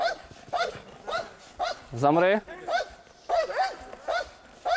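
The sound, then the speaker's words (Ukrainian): A trained service dog barks repeatedly and loudly at a target during training, in rapid, urgent bursts with one long, strained, rising bark midway, while a person shouts a short command over it. “Забрати собаку від цілі може тільки провідник, і то не усними командами, а буквально відтягнувши від враженого противника.”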